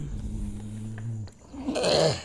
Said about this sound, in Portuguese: Porém, mais alta ainda foi um rosnado de cachorro.